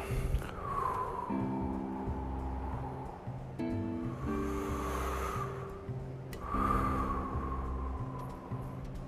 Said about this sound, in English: I'm breathing in. I'm breathing out.